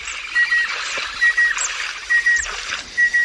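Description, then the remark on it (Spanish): Waterbirds call in a steady rhythm in the Doñana marshes of Spain, a wetland holding some 200,000 waterbirds of over 300 species: short paired whistling notes repeating about once a second over a dense, hissing chorus of other birds in the background. No one speaks. “Son 130.000 hectáreas repartidas entre Huelva, Cádiz y Sevilla de inmensas láminas de agua que acogen a unas 200.000 aves acuáticas de más de 300 especies.”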